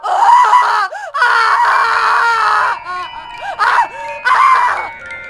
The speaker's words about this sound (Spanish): pero al prestar atención, me di cuenta de que no eran de placer, sino de dolor. La diferencia no es mucha. Eran como de una mujer siendo atacada, violentada. Se escuchaba como si hubiese sido amarrada y estaba a punto de ser descuartizada.